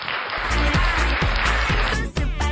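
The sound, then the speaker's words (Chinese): Loud, dense applause from a crowd, a continuous wash of clapping over a steady, rhythmic low thumping beat, with no voices, welcoming the first female caller of the week on a call-in program. “好了，先稍续，让我们热烈的掌声有请本周第一个妹妹。”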